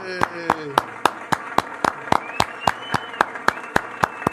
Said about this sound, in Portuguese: Palmas, palmas para vocês, palmas.